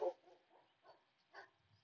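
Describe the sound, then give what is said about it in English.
A good-sized dog, not a mastiff, barks a few times in Spain at uneven intervals, the first bark loudest and the rest softer, with no one talking. “Yeah, doggy doggy, where are you? Can I see you?”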